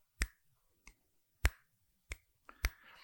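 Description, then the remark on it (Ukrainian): Five sharp finger snaps ring out at irregular intervals, crisp, with a faint rustle trailing the last one and no voices. “Але звук щелчків почав наростати.”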